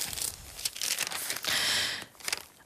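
Crisp rustling of pages of the Italian newspaper Il Fatto Quotidiano being turned, with a few bursts of crinkling and a longer sweeping swish in the middle, no voices present.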